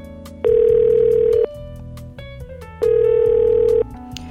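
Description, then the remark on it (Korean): Two steady electronic ringback tones, each lasting about a second, separated by a longer pause, with a faint musical bed underneath, as someone phones the owner of a double-parked car blocking theirs in a parking lot. No one speaks. “할 수 없이 차주분께 전화를 걸었어요.”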